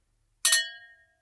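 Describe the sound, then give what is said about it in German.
Two glasses clink together once as two people make a toast, a bright ringing chime with a quick double strike that rings out and fades over about half a second. No talking. “Dann würde ich sagen, wir zwei stoßen nochmal an.”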